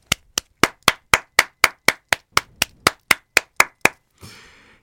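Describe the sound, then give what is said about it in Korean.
Applause welcoming a new guest, in a steady, even rhythm: about fifteen crisp, loud claps spaced evenly, ending in a short, softer rush of noise. No one speaks. “일단 박수로 맞이합시다.”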